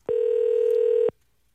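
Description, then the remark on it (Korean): A telephone dialing tone as a phone call is placed: one steady, mid-pitched buzzy beep lasting about a second, starting and stopping abruptly, with no voices over it. “예, 전화 한번 걸어보세요.”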